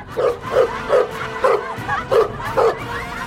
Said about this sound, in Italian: vi rincorreva festante e abbaiava rotolandosi nell'erba con voi